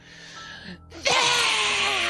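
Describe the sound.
A voice imitates a vampire's screech: a short breathy lead-in, a brief pause, then a loud, harsh, sustained shriek that holds steady until the end.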